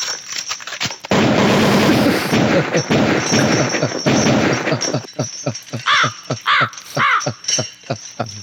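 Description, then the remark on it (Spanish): A sustained, rapid burst of loud gunfire sound effect rattles for several seconds, then gives way to a series of harsh, repeated crow caws. “Ay, aquí nos encanta la bala, eh”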